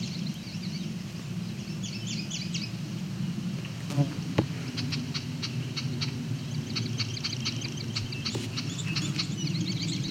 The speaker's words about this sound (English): There was the yellow warbler again. Yellow throat. Song sparrow.